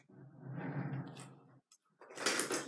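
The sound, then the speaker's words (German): A drawer of a desk pedestal slides out with a long, rumbling scrape while someone tidies the drawers under a desk, then after a brief pause a sharper, brighter scraping clatter follows, fairly loud, with no talking. “ja, wundert euch nicht über die Geräusche, ich räume eben gerade meine Katze auf.”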